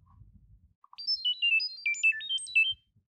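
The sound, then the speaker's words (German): A rapid sequence of short, bright electronic beeps hopping up and down in pitch like a robotic birdsong melody, lasting about two seconds, played alone after a moment of faint low rumble: Chirp app audio data-transfer tones sending a video. “Und zwar ähm, müsst ihr jetzt alle mal leise sein und dann hört sich nämlich ein Chirp so an.”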